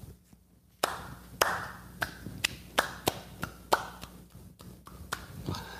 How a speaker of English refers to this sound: Now, whoever decided that the two anchor tenants should be Dick's and BJ's, I, I think it's time for a slow clap.